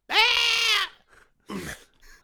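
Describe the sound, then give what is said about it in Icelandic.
A person imitates a goat with a loud, wavering, strained bleat lasting nearly a second, followed by a softer second vocal burst after a brief pause. “Ég sagðist til að ríða geit út af því að Það gefur svona hljóð frá sér”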